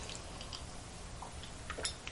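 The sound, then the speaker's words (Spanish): A quick, quiet sip of coffee from a cup: a few soft wet clicks and a brief slurp near the end, over a low steady hum with no talking. “Cargadito de noticias está el café de este viernes, el último de la semana en este programa, así que me voy a dar un buchito rápido, rápido para pasar a las noticias más importantes.”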